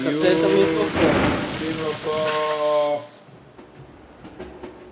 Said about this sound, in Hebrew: גשם